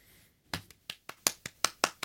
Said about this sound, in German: Gelle, da klatscht man auch mal.